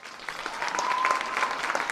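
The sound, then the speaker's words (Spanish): An audience on a program gives a strong round of applause for a dear colleague, clapping steadily for two seconds, a dense crackle of many hands at an even, moderate level with no voices over it. “Vamos a darle eh, un fuerte aplauso a nuestra eh, querida compañera”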